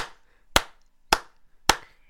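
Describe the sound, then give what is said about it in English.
Three sharp hand claps giving a beat in a steady, evenly spaced rhythm, crisp, with quiet room noise between them and no voices. “she would start clapping. yeah, give me a beat.”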